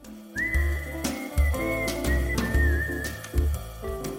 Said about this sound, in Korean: 아, 이 진짜 휘휘하는 휘파람 소리가 굉장히 유해진 씨가 가지고 있는 그 여유로운 음. 어떤 그 매력을 또 보여주는 것 같은데요.